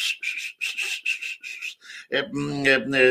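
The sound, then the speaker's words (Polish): Breathy, airy whistling in a series of short gusting bursts, like someone imitating the wind, followed by a voice starting to talk. “Po pierwsze, e, e, najprawdziwszą e, pewnie jest możliwość, że słyszał gwizd po prostu taki, prawda?”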